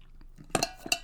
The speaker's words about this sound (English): I'm just going to sip water for a quick second. Mm.